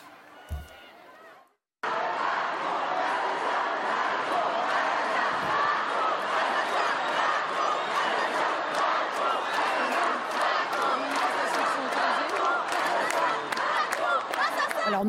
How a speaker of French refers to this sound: on va juste écouter un des slogans qui a été scandé euh, dans cette manif, là, qui se déroule en direct, qui mentionne notamment Emmanuel Macron. Écoutez.